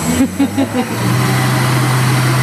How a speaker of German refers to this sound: Aber ich glaube, mit diesem großen Mixer hier macht es mehr Spaß. Das ist ein Mixer, der auch ein bisschen mehr kann als der kleine.